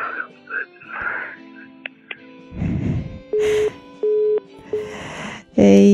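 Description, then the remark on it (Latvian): A telephone call tone for an incoming call from a father calling in beeps in several steady, evenly spaced pulses, fairly loud and clear, amid bursts of rustling noise and faint background murmur, ending with a brighter electronic tone. “Kas mums zvana? Kas zvana?”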